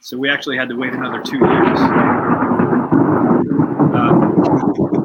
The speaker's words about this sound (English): sorry about the thunder, man. That's okay.